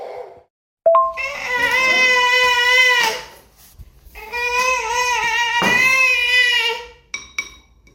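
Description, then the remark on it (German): Young birds wail loudly for food just before their morning feeding in two long, high-pitched, sustained cries separated by a short gasp, followed by a few brief squeaky whimpers at the end. No one speaks. “hier kurz vorm, vorm Futter geben morgens quasi sich anhört wie so eine Raubtierfütterung?”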